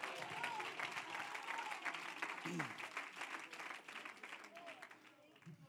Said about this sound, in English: Would somebody clap your hands to the Lord?